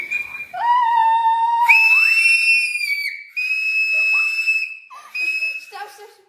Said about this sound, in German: Einmal mal schreien wir jetzt ganz hart und schauen dann, ob die ähm, Dinger wie hoch die gehen, ja?